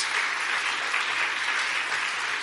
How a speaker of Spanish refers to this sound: Dale un aplauso fuerte de alabanza a Él, solo si tú lo crees.